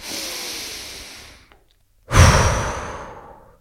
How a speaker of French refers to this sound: Fermez les yeux, vous êtes dans votre bulle. Et là, vous respirez. Inspiration par le nez